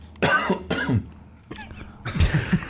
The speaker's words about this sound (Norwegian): Unnskyld hvis det var feil at jeg hosta.